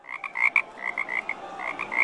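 A frog croaks in a rapid, continuous series of short nasal pulses, steady in volume, with no voices and only faint background hiss.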